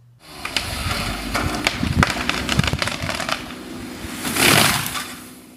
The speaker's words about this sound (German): Was hat es wohl zu bedeuten, wenn unser Abgeordneter Volker Bauer die Kettensäge zur Hand nimmt?